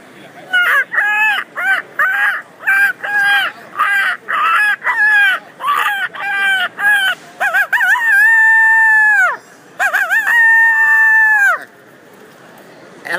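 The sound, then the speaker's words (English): A person makes hunting calls for coyotes: a rapid series of loud, squealing rabbit distress cries, about a dozen short bursts, followed by two long, drawn-out coyote howls that rise and waver, all clear with no talking. “Rabbit distress call coming at you in a coyote howl.”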